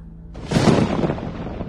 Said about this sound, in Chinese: 打雷了，要下雨了。